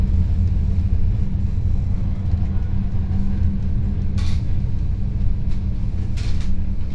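Steady low rumble inside a moving tram in Schwerin, riding through a Plattenbau housing estate, a continuous droning hum with occasional brief hissing or squealing bursts from the wheels and rails, no voices.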